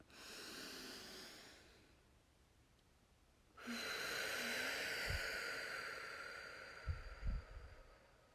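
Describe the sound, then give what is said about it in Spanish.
Loud, forceful breaths during a guided breathing exercise: a long airy exhale, a quieter pause, then a strong sustained rush of breath ending with a few short puffs. No talking. “Y cada vez que exhalo, libero más fuerte.”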